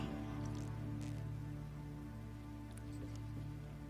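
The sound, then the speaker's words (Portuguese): A speaker pauses to drink a little water: a few quiet, soft sips and swallows with small wet clicks spaced apart over a steady low electrical hum, and no talking. “deixa eu até tomar um pouco d'água que eu vou falar a respeito disso.”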